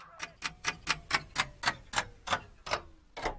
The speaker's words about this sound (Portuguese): O relógio não para